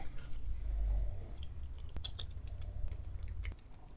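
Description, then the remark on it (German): Steady chewing and munching of feed by an animal eating its portion, with wet smacking and crunchy bites repeating in an irregular rhythm, plus a low rumbling background throughout. “solange wie das Futter da ist, nicht. Und du siehst, die Portion ist relativ schnell weg.”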